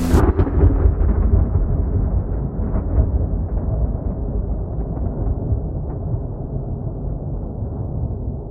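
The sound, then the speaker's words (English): A sharp crack of thunder after lightning opens into a deep, heavy rumble that rolls on loudly and steadily for several seconds, booming, with no voices. “I then saw one last flash of lightning before millions of stars blurred my line of sight.”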